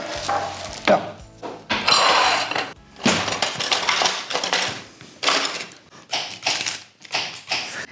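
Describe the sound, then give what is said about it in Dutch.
A knife chops through onions and radishes on a board, with bursts of quick, crisp taps and short pauses between runs of cutting. No one speaks. “Uh, we moeten even groenten snijden. Ja. Dus eh, een plankje dus? Ehm, uitjes snijden. Radijsjes snijden.”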